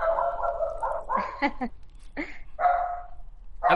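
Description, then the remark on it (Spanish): A small female poodle in Valencia, Venezuela, barks in a quick, uneven series of high-pitched yaps, some drawn out into whiny, tonal calls, with no talking over them. “Qué bueno, y tienes el perro suelto.”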